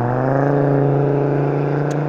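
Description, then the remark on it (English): A car drives by, its engine droning at a steady, low pitch with a buzzing harmonic hum, holding an even loudness throughout without clearly rising or fading. No one speaks. “Um, so while third parties drive by like that, the state engages in vibrating the ground, like rumbling the ground, like that's gonna cause an earthquake or something.”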